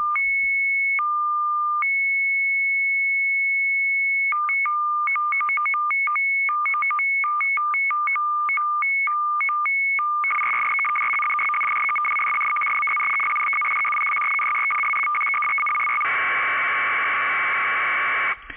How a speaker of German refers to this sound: Das Hörbeispiel entspricht in etwa einem übertragenen Bit pro Sekunde. Wenn wir die Bitrate nun stufenweise schneller stellen, so klingt es am Ende genau so, wie das Signal, das beim Handfunkel heraustönt, wenn wir auf die APS-Frequenz getunt haben.